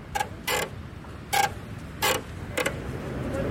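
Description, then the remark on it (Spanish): Wooden boards of a wooden street creak underfoot as someone walks through Ciudad Salitre in Bogotá, Colombia, about five short creaks spaced unevenly like walking steps, clear over a low outdoor rumble, with no one talking. “En este momento estoy pasando por una zona en Ciudad Salitre, en Bogotá, y esta calle es de madera.”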